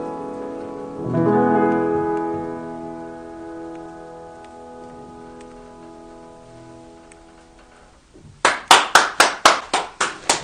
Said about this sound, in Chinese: 哇！我听到，我听到这个热烈的掌声了啊，还好像还听到打赏的声音，这个太好了。